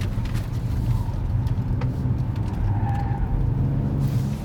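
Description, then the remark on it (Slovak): A car engine roars steadily, with a thin tire squeal rising briefly over the rumble as the tires screech while the car drifts, leaving drift lines behind. No voices. “Iba ma trochu znerozňujú tie zvuky tých kolizov, mám pocit, že ich nechávame za sebou, ale asi to, to sú pneumatiky.”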